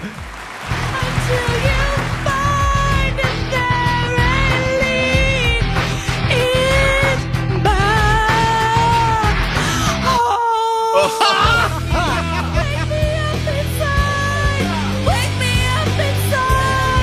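A woman sings a rock song loudly over a full, heavy band, her strained, wailing vocal lines rising into screams; the music cuts out briefly midway before surging back at full volume.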